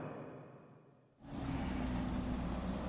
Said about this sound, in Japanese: 千鳥ヶ淵の交差点を通過して今内堀通り沿いですここは結構車も多いんですけど